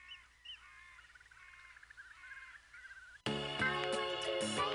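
Birds call in a series of short, chirping trills for about three seconds, fairly clear against a quiet background, before loud music abruptly cuts in and drowns them out.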